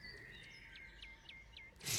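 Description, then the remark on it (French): Birds sing outdoors, a steady thin whistle joined by four quick, evenly spaced chirping notes, fairly faint against a soft background hush, ending in a brief rush of noise. “qui avaient acheté dans des petits villages pour être tranquilles, entendre les oiseaux comme là”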